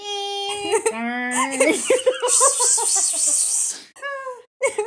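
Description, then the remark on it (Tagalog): A voice imitates a dial-up modem connecting, with steady squealing tones and warbling pitch steps, then a harsh hissing static burst, a brief pause, and one last tone, fairly loud. “Tapos, tapos oh dial up, dial up ba yung, yung marami ring tunog?”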